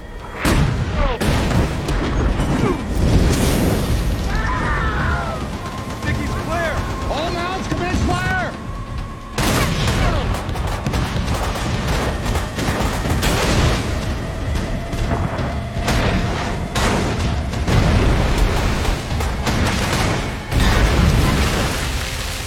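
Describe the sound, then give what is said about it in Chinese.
Naval artillery gunfire and explosions as the destroyer Greyhound and another destroyer shell and sink a submarine: a string of heavy, loud booms and blasts in irregular bursts, with shouted voices and a low rumbling roar filling the gaps between shots. “另一艘驱逐舰也跑来助攻，最终两船用炮火将这艘潜艇打沉，但灰猎犬号船身也中了一弹。”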